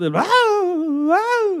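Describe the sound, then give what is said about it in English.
A single voice lets out a loud, drawn-out wailing yell, rising sharply in pitch and wavering for over a second, an imitation of someone suddenly yelling out of the blue. “What if people just start, you know, out of the blue, just start yelling?”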